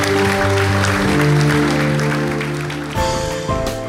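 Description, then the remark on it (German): An ICF München church audience applauds a good decision at the end of a sermon, steadily for several seconds, a dense crackle of many hands clapping, while sustained keyboard chords play underneath. The clapping stays loud throughout and eases only slightly toward the end. “Hey, lasst uns für diese gute Entscheidung einfach einen Applaus geben, weil es ist eine gute Entscheidung.”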